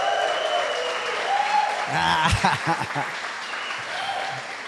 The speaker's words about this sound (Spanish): No me gusta mucho el silencio, entonces dele un grito de alegría a Dios, un fuerte aplauso.